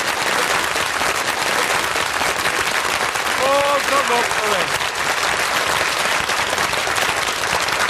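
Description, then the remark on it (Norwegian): Dense, steady applause from a crowd fills the whole eight seconds at an even, loud level, with a short spoken exclamation rising briefly over the clapping midway; the clapping celebrates the arrival of colour television in Norway. “Vi klapper for farver i Norge.”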